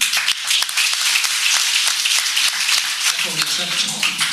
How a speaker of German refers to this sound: Jetzt haben wir schon ordentlich Applaus